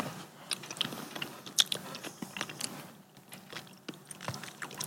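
Chewing with crisp, irregular crunches and wet mouth clicks, steady for several seconds, loud, with no talking.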